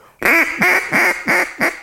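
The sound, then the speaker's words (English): A duck call blown in a quick series of five loud, raspy hen quacks with a fluttering, rolling rhythm, with nothing else audible. “And anybody can awesome. flutter a call. What I call fluttering a call is get into it and put voice into it”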